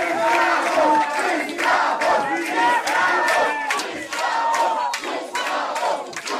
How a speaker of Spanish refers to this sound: Tal vez no se escucha bien, pero al final de los abucheos les gritan esclavos, esclavos, porque esos médicos brasileños consideraban que los cubanos iban a Brasil a ser explotados en condiciones indignas.